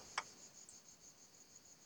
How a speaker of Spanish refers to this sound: porque, o sea, es una tranquilidad escuchar, no sé si a lo mejor podéis llegar a escuchar el sonido de los pájaros y de los grillos.